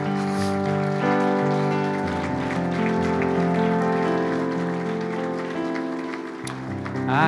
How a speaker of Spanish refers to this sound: Gloria a Dios. Puedes dar un fuerte aplauso al Señor en este momento.